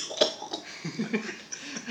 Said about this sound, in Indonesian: ada yang batuk ya